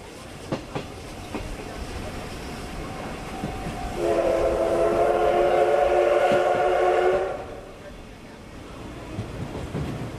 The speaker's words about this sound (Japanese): さあ懐かしい SL の音を聞きながらしばし旅を楽しみましょ